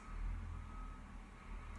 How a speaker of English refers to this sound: Not sure how much you hear that truck outside, like beep, beep, beep. Anyways, lovely little background noise.